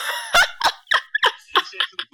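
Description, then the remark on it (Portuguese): A person mimics a bald eagle's screech with a rapid series of about seven sharp, shrill cries, each short and piercing, fairly loud. “Desculpa, como é que é o barulho clássico de águia?”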